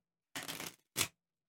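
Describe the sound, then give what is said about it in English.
A deck of 52 playing cards is shuffled to decide which game to play: a brisk, rustling riffle lasting about half a second, then a short, sharp flutter as the cards come together. “All right let's let the shuffling deck side decide.”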